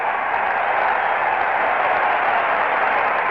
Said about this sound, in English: Bob Gibson's just tied the World Series record for strikeouts in a game, and the crowd stands and cheers as loud as perhaps Busch Stadium's faithful had ever reached decibel wise.